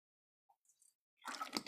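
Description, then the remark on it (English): Someone takes a quick sip of water: a few faint wet clicks, then a short, louder burst of slurping and swallowing. No one speaks. “let me get drink some water”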